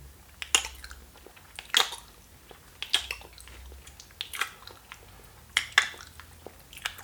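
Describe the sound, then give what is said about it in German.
Wet, relishing chewing with smacking lips, a series of moist clicks and squelches every second or so, with no talking. “Und fangt mal an, ganz genüsslich zu kauen. Und äh, das darf ganz ungeniert auch mit Schmatzen sein.”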